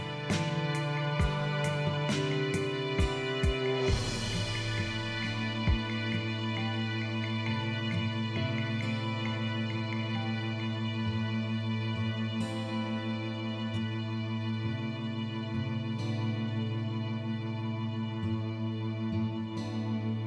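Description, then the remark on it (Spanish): Instrumental theme music plays on its own, opening with a few sharp percussive hits before settling into steady, sustained chords and held tones at a moderate, even volume, with no voices. “El tema original de este podcast que escuchan en la presentación y en los créditos de los episodios fue compuesto por Alejandro Jaramillo”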